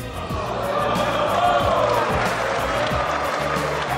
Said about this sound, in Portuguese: Uma afirmação que dividiu os deputados franceses com aplausos de um lado e a pupus do outro.